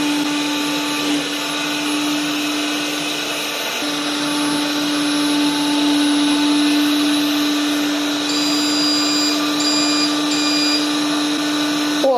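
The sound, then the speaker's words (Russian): A HOBOT 298 window-cleaning robot's suction motor whirs steadily as it moves over window glass, a constant vacuum-like drone with a low hum that holds for the whole stretch, with no voices. “Робот для мойки окон HOBOT 2”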